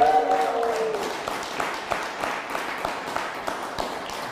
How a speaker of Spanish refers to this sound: Rose Vázquez, que nos está viendo desde Estados Unidos, también un fuerte aplauso.